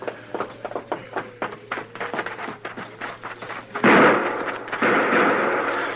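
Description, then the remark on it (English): A rapid string of sharp gunshots cracks, then two heavier, louder blasts ring out and echo away, fired from a dock across the street at the edge of the railroad yards at a man entering a hotel. No one speaks. “Somebody tried to kill me. I started into the hotel and they fired from the dock here.”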